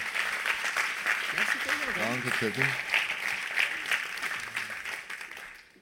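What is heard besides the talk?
audience applause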